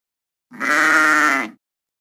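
A single sheep bleats once, a loud, wavering cry lasting about a second, with silence before and after and no voices.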